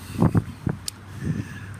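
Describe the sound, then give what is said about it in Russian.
Footsteps crunch and rustle through dry yellow fallen leaves as a person walks through a park, a few uneven scuffing steps over a light wind-like background, with no one speaking. “Видите, у нас такая желтая листва. Вот я шуршу так, по ней иду по скверу, по парку.”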